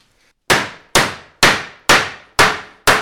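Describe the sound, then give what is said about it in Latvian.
A tinsmith's hammer strikes sheet metal six times in a steady, even rhythm to fold it, each loud, sharp clang ringing briefly before the next blow, in his workshop in Gaigalava parish, Rēzekne municipality, near the church. No voices are heard. “Viņš man rāda, kā sitot ar āmuru var salocīt skārdu”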